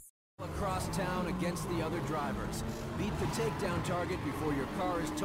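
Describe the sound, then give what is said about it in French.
Gameplay sounds from the racing video game Burnout Paradise, with cars driving over a steady bed of music, engines droning continuously and loudly after a brief silent start, filling the whole stretch. “Alors là, c'est un, extrait de, gameplay. Donc vous allez avoir de la musique, des voitures qui roulent et, du, du vroom vroom.”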